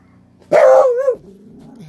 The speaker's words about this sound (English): Excuse my dog there.